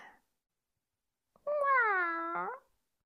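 A single drawn-out cat meow, about a second long, clear, with a slight rise and fall in pitch, heard on its own after a brief silence.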